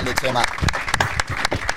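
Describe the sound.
An audience applauds, a quick run of uneven claps at a steady moderate loudness, with voices murmuring and calling out underneath.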